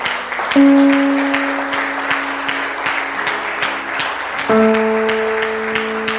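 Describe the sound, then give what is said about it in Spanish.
An audience claps steadily and continuously for several seconds, giving applause to God for the people coming to the front for prayer, while sustained keyboard or organ chords hold underneath, shifting to a new chord partway through. “¿Por qué no le damos un aplauso a Dios por las personas que van a pasar?”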